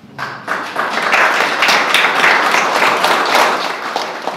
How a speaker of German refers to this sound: Ein ordentlicher Applaus nach der kurzen Eröffnungsrede.